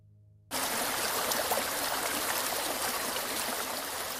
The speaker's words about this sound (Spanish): Pero además de ruido blanco también existe el ruido rosa, que bloquea de manera eficiente un sonido que te alerta, como pueden ser pisadas por el pasillo o motores de coche en el exterior. Ejemplos de ruido rosa serían estos.